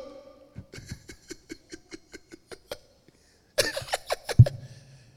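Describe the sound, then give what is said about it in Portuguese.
A voice imitating sobbing on the phone with a quick, rhythmic series of about ten short gasping catches, then pauses before a louder, more strained burst of sob-like crying. “Eu só queria que alguém me ligasse soluçando do outro lado do, do telefone.”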